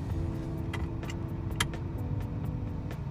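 car engine running

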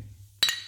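drinks clinking together

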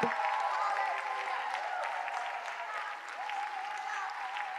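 audience hand clapping

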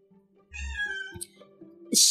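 cat meowing

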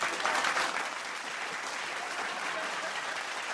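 applause sound effect

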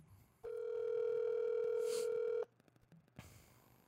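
telephone dial tone

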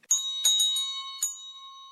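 church bell ringing

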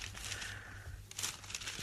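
paper letter being unfolded

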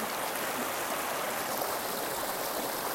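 flowing river stream

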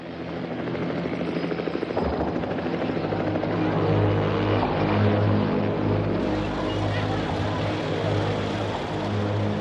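helicopter rotor flying overhead

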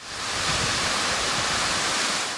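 water falling

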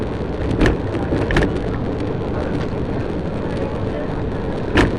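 river water flowing

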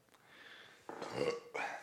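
burp

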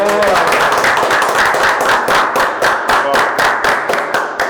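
round of applause

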